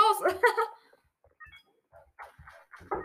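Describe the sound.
Two quick, loud barks from a dog ring out right at the start, followed by quieter scattered sounds and some indistinct speech toward the end.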